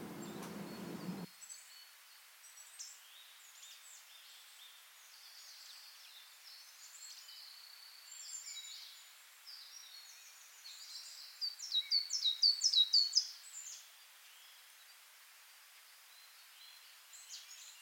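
Small birds in a forest chirp and twitter softly throughout, a quiet scattering of high calls that swells into a brighter, quicker flurry near the end, with a low rumble at the very start.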